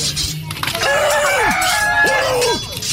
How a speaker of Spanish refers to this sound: A ver, eh, eh, gallos, eh, entre ustedes tienen que pelear.